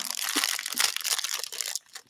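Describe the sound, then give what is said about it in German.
A Raffaello praline wrapper crinkles and rustles in a continuous, bright, crackly stream for nearly two seconds, then abruptly stops. No voices are heard. “draschelt jetzt mit ihrem Raffaello hier.”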